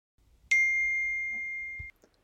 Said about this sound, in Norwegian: Nå får jeg melding. Jeg gidder ikke å svare nå.